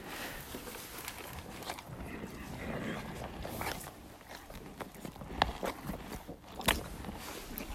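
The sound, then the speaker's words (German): A horse named Ruby chews and smacks its lips in a horse stable, with irregular wet crunches and a few sharper clicks over soft rustling and shuffling, with no talking. “Ich hoffe, man hat die Ruby jetzt schmatzen gehört.”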